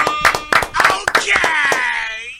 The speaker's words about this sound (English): clap it up one time.